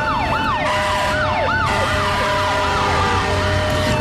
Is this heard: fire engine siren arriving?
yes